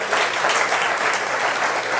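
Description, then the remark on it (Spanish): A church audience claps together, giving applause to the Lord, in a dense, steady wash of applause that holds evenly for the full two seconds, with no voices standing out above it. “Vamos a dar un aplauso al Señor por ellos dos.”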